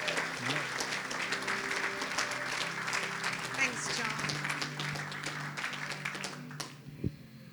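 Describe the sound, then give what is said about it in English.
Steady, dense applause from a sizable crowd welcoming a female pastor as she comes up to speak, lasting several seconds, with faint voices and a few cheers mixed in, before the clapping cuts off abruptly near the end. “And so, why don't you put your hands together and welcome”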